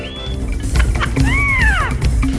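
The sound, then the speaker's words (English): Amazon parrots, African greys, macaws and a conure call in the background: a thin whistle, then a loud arching squawk with a rising-and-falling pitch, over a steady low rumble. Nobody speaks. “Yes, those are bird voices you hear in the background Amazon parrots, African grays, macaws, and even a conure.”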